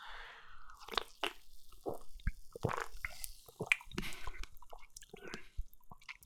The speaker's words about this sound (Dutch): Ik ga eens een slokje nemen.